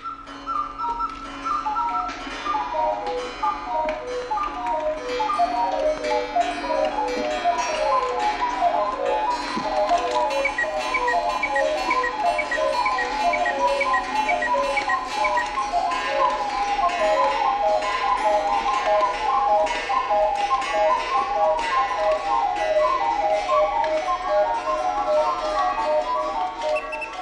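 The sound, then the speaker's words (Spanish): A small clock ticks steadily while tiny bells struck by tiny hammers ring out in a quick repeating melody, clear, continuing evenly for the whole stretch. “Hicieron unas campanitas minúsculas y unos martillitos diminutos para que sus relojes pequeños sonaran”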